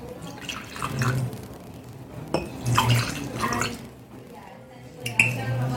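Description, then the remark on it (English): Glen Moray whisky glugs and trickles into a glass in short bursts, with a couple of light glass clinks, moderately loud, while faint voices murmur in the background. “Let's start with uh, with the drink.”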